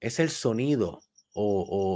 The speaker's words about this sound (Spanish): No sé si lo pueden escuchar. Hay un grillo cantando cerca de aquí.